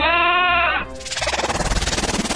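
A sheep bleats, starting with a steady, nasal tone and breaking into a loud, rapidly quavering baa that pulses for over a second. No one speaks.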